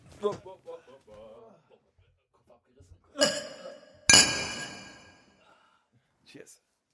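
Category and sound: household object, glasses clinking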